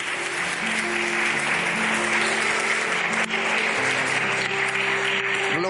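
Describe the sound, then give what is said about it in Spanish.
An audience applauds Jesus for the work of redemption at a church service, in a dense, steady wash of clapping that holds for about six seconds without letting up, while low sustained instrumental notes hum underneath. “Quien aplaude a Jesús por esta obra admirable de redención.”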